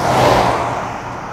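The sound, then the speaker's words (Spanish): The engine of a Dorado Biarritz car revs with a deep, rumbling roar as it is driven, holding steady briefly before easing off into a lower drone. “Así es, este coche tan bonito siempre lo he asociado con el mundo de Lampa, de modo que no pude elegir un mejor modelo para ir a tomar café con mi invitado de esta semana,”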